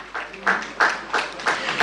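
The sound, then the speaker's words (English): An audience applauds a prize winner as an award from Gold Key Properties is presented: dense, steady clapping from many hands, with louder surges roughly every third of a second, holding at a moderate level for the whole stretch. “A round of applause to him.”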